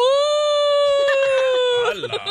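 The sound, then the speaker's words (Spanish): A voice mimics a crying little boy with one long, steady, high-pitched wail that slides downward at the end, loud, almost siren-like. “Ok, mira, un niñito pasaba por la calle llorando y llorando y llorando. ¿Cómo lloraba el niño?”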